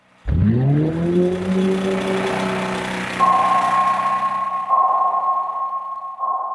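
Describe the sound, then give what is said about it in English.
A deep engine drone from commercial shipping starts abruptly and spins up into steady humming tones, joined midway by a higher whining pitch, ship machinery rumbling continuously underwater in the ocean, loud with no voices. “The one that we think about a lot with the species I study are the sounds generated from commercial shipping.”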